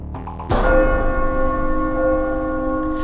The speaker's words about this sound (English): the head splitting tolling of a giant bell rebounds through the inside of her skull.